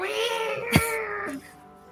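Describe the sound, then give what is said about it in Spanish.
A wet cat lets out a long, drawn-out meow, its pitch sliding as it wavers, with a brief sharp knock partway through before it trails off. “el gato está todo mojado y está”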